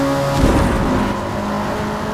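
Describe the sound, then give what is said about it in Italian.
A video game race car drones along at steady engine pitch, with a brief rattling judder near the start as the tires run over rumble strips; loud, no voices. “sentite i bordi pista io sto comunque continuamente facendo dei micro movimenti”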